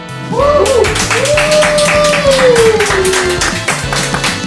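Steady, rhythmic clapping runs through the whole stretch, mixed with a thumping low beat and a high sliding tone that swoops up and then glides slowly down.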